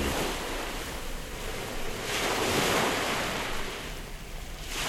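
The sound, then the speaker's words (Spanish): Steady ocean surf rolls and washes along the shore, swelling into a louder breaking wave midway before easing back into a continuous hiss, with some wind blowing across the microphone. “Anduvieron, anduvieron, anduvieron y llegaron a la orilla del mar inmenso y azul.”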